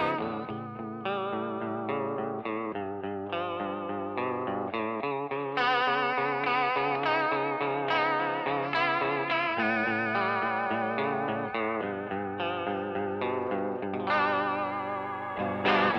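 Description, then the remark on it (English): A song plays at steady loudness, with dense layered tones drenched in chorus and distortion effects and shifting chords every second or so. No voices are heard. “Is yeah. this the second best song of all time? Oh, uh, this is also the best song.”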